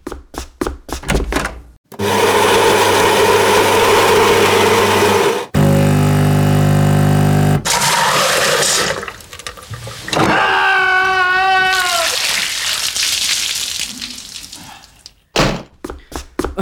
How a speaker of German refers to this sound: warum klingt die Kaffeemaschine eigentlich so komisch? Das liegt an dem harten Wasser bei uns.